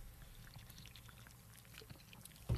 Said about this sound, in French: Fait que, une petite gorgée. Euh, ouais, gorgée à ça, ben oui, j'adore.